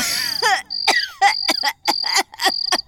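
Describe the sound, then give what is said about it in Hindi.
A strange, hoarse cough from a very old woman repeats in about five rasping bursts, fairly loud, with an eerie thin whistling tone running through the fits. No one speaks. “तभी किसी बुढ़िया की खांसने की आवाज आई बड़ी अजीब आवाज थी”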